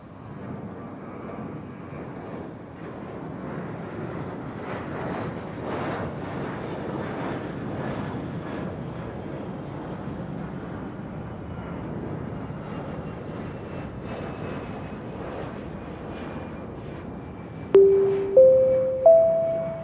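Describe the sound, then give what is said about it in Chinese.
A steady, loud airplane engine roar rumbles with no talking, then three ascending chime tones ring out in quick succession near the end, like an airport announcement signal, as the swallow plane in the picture-book story Swallow Airlines is about to leave the airport for the southern islands. “欢迎来到机场，燕子飞机即将飞往南方的岛屿。”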